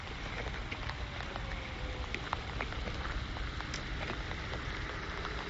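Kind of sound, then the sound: nature, heavy rain pouring down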